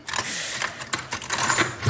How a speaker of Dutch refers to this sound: Dit zijn munten.